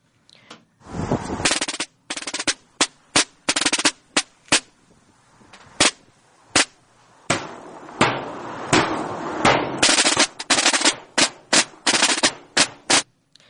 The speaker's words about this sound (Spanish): No podíamos empezar de otra forma esta sección de música de Semana Santa, pues el sonido de tambores que acabamos de escuchar es uno de los más famosos,